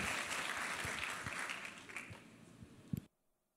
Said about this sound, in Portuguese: Receba esse grande homem de Deus com mais uma vez uma grande salva de palmas.